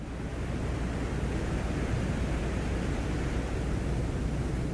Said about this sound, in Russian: Микрофон включился незадолго до посадки. На первой стадии мы можем слышать там шум ветра.